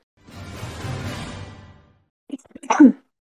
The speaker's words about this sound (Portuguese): Nossa, tô segurando, tô segurando essa tossida aqui o episódio inteiro.